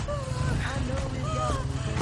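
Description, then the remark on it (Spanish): A motorcycle engine rumbles at a steady low drone as the motorcycle pulls up and stops near people walking on a lonely street, with muffled voices over it for the full two seconds. “Jack para cerca de ellos en la moto.”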